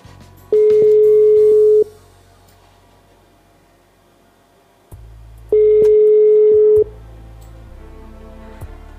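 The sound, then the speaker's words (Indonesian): A telephone ringback tone sounds twice while a call is placed to a doctor, each steady electronic burst lasting over a second with a long pause between, heard through a phone line over a low hum with no one talking. “Coba kita sambung via telepon terlebih dahulu.”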